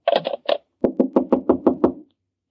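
Knocking on a door: a quick cluster of raps, a brief pause, then a steady run of about seven firm, evenly spaced knocks. No voices.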